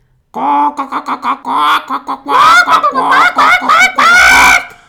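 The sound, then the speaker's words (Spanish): Two people squatting down imitate hens clucking, starting with a quick run of short, evenly spaced clucks and building into louder, drawn-out squawking calls, fairly loud, with no ordinary talk. “De un modo espontáneo yo con mis medias a la altura de los tobillos y él con el traje hecho un ovillo, nos ponemos de cuclillas y empezamos a cacarear.”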